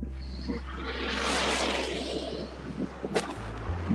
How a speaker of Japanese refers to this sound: どうだ雪うん雪を踏みつける音するうん